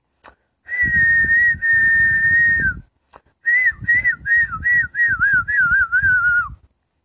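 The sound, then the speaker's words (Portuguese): A person whistles like a singing bird, first holding a long steady note, then breaking into a quick run of short warbling chirps that gradually dip in pitch. Clear, with no talking. “O, o outro passarinho cantava.”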